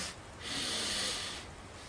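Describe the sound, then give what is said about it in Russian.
A single long, deep belly breath drawn in through the nose, filling the abdomen and diaphragm with air, airy and hissing, swelling over about a second before fading, fairly soft, with no talking. “Значит, первый вдох начинается, можем стоять, можем сидеть, это пока мы говорим про дыхание.”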